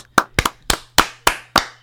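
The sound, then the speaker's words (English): A person claps their hands seven or eight times in a loose, slightly uneven rhythm, each clap sharp and bright with a short decay, with no talking, celebrating the film Unhinged reaching a total gross of twenty million dollars. “and that's the new clapping threshold.”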